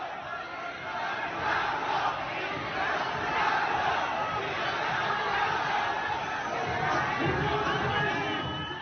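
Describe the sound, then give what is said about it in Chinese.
A large arena crowd boos in a sustained, loud roar of jeering voices, with shouts mixed into the steady din for the whole stretch and no clear pause, as head coach Li Nan leaves after his basketball team's 73–86 loss to Nigeria; spectators shout for him to step down. “所以，主教练李楠在离场的时候呢，我们听得特别清楚，现场的观众是一阵的嘘声，并且高喊着“李楠下课”。”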